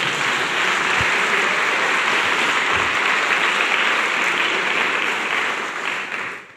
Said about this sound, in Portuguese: Pode aplaudir isso. Pode aplaudir.